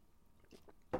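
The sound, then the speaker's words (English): Someone takes a quick sip of water: a few soft, wet mouth sounds, then a louder gulping slurp right at the end, with no one talking. “Pardon me, I have to take a sip of water.”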